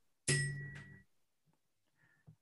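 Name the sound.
gong strike sound effect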